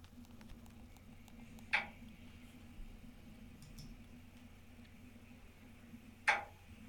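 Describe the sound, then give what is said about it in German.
Two sharp, metallic knocks in a bathroom radiator heating pipe, recorded on a smartphone, several seconds apart, ringing briefly over a steady low hum. “Also quasi als ob einer mit dem Schraubschlüssel von oben gegen das Rohr klopft.”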